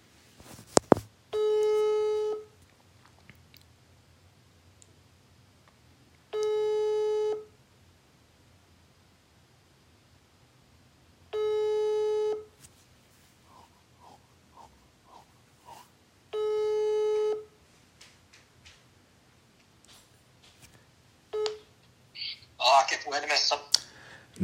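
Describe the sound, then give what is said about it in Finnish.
A telephone ringback tone buzzes four times at steady intervals, each tone lasting over a second with long pauses between, followed by a click and a voice answering the line, as the Kansan filmiradio show phones a guest for an interview. “No niin, ja puhelin soi.”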